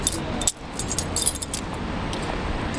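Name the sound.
keys jangling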